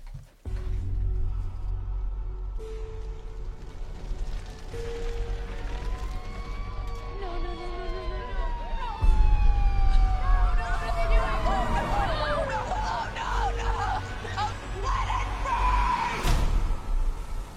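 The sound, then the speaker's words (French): Several sirens wail at once, their overlapping tones sweeping up and down over a low rumble and a noisy crowd, growing louder and busier before easing near the end. “Eh bien, dis donc, ça, ça hurle beaucoup.”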